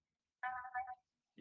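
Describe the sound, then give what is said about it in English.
A short disappointment sound effect plays on its own: two quick, buzzy descending tones lasting about half a second, fairly loud, followed by silence and the start of a voice. “Well, that, that that is that is a sign of uh, disappointment.”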